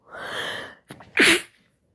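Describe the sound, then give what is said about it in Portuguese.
A single loud sneeze: a long breathy inhale building up, a brief pause, then a sharp explosive burst that trails off quickly. No talking. “Saúde.”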